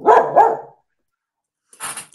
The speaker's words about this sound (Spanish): perdón que mi perrito está ladrando, pero bueno, son las cosas del directo. Ven, ven, ven chiquito.